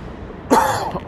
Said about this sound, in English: would not be an episode without me coughing.